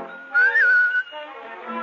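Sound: short human whistle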